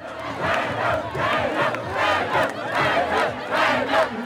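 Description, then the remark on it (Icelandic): A large crowd of Conservative Party supporters chants their party leader's name, "Pape", over and over in a steady, loud rhythm as the leaders arrive. Voices swell together in repeated bursts with no single speaker standing out. “Flokksleitóðarnir heilsuðu bara upp á sitt fólk og, og hérna heyrum við til dæmis uh, stuðningsmenn Íhaldsflokksins hylla sinn leitóða og kalluðu kallað þarna Pape Pape, hann heitir sem sagt Sören Pape Pólsen Íhaldsflokksins”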